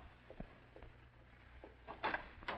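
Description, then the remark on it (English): Soft, irregular footsteps of a man in a dark suit tap along a hard floor as he walks away down a hall, with a few quiet steps early on and a slightly louder cluster near the end, heard alone with no voices over a low background hum. “And in a short time, you hear his footsteps fading down the hall.”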